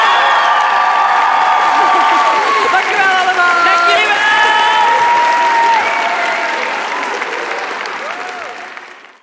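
A crowd applauds steadily while cheers and whoops rise over the clapping, a dense sustained wash that fades out toward the end.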